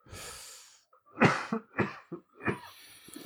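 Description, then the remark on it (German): A long breathy inhale followed by a burst of four or five harsh coughs in quick succession, with a raspy breath trailing after them. “Ich habe ich hab gehustet”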